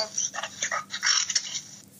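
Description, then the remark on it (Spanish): A dog beside the speaker's place barks in a quick run of short, sharp yaps, not loud, with no one talking over it. “Hay un perro a costado, pero no.”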